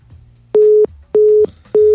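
A telephone busy tone after a dropped call: a steady, loud mid-pitched beep repeating in short even pulses, about three in quick succession, with a faint low hum underneath and no talking.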